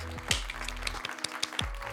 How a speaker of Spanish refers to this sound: ¡Yay! Eh, aplausos.